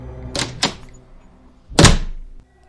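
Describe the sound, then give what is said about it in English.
A basement door leading to a staircase rattles with two quick light knocks, then slams shut with one heavy, booming thud that rumbles briefly before fading, with no voices. “The basement doors leading to a staircase have the tendency to open and slam shut on their own.”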